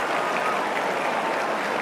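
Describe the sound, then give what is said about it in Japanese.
A large racecourse crowd roars and cheers at the finish of a horse race in a steady, dense wash of noise, like applause and shouting blended together, holding at an even loudness for the full two seconds with no distinct voices. “さあ捉えたかママコチャ押し切ったかナマラ・クレアは3着場内大きな歓声”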